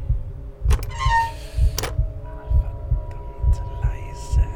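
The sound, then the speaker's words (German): A racing heartbeat thuds loud in a fast, steady rhythm, about two beats per second, over a low hum with a few faint clicks and creaks. “Ungewiss, was mich hinter der Tür erwarten würde, erhöhte sich mein Herzschlag mit rasender Geschwindigkeit.”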